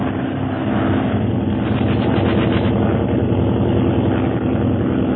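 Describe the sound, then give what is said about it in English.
Steady, loud drone of airplane engines in flight toward Tibet, a dense low rumble with a pulsing propeller throb that swells slightly midway and holds constant throughout, with no voices. “there's another plane bearing down upon them.”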